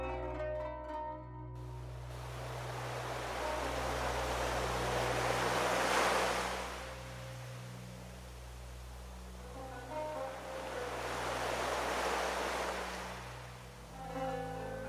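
Gentle waves from a nearby gulf lap the shore at night, washing in and receding in two slow, broad swells, with a steady low hum and faint wind underneath; no voices.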